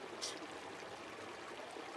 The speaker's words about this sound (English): The river rushed about them fast and strong.